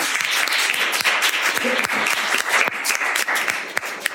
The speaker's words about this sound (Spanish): Un aplauso también para ella.